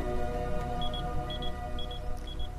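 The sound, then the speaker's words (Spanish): A mobile phone rings with a steady pattern of high double beeps, four pairs evenly spaced about half a second apart, over a constant low hum of background noise. “Tiene gracia porque de pronto suena un móvil, pero no vamos a contar más detalles.”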